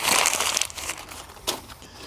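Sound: paper rustling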